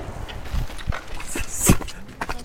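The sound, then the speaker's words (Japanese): Hard footsteps climb stone steps up to a shrine at Ouchi-juku, Japan, in an uneven rhythm, several sharp knocks and scuffs over a faint outdoor background surrounded by trees, with a brief murmur of voices. “足音がめっちゃ取れてるよ”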